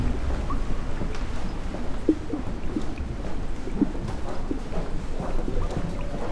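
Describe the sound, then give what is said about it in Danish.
Water pours steadily down a large waterfall on top of a hospital's tower, used to cool the air in its huge ventilation system; a continuous low rushing roar with deep rumble and no pauses throughout. No voices are heard. “Vandet bliver brugt til at nedkøle luften i det enorme ventilationssystem.”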